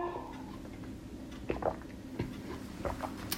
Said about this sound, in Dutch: Ik pak weer even een slokje water.